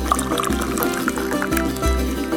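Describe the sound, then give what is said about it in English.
Tea pours steadily into a cup for a couple of seconds, a continuous liquid splash whose pitch rises gradually as the cup fills, over a low steady hum. “So pour yourself a cup”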